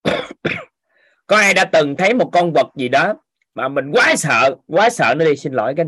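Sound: throat clearing and coughing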